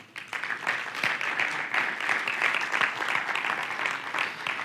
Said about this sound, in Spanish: Gracias a todos por el esfuerzo extra ya en julio de servir y que nos permita hacer estas cosas para que los demás vean Jesús, para que nosotros podamos ser comunidad. De verdad que lo valoramos mucho, esta comunidad. Un aplauso les damos, por favor.